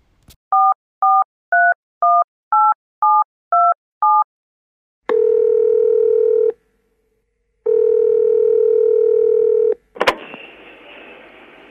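A quick run of eight dialing beeps, then two long, steady ringing tones separated by a short pause, ending in a click as the line is picked up, as a phone call is placed to a woman with the help of her coworkers.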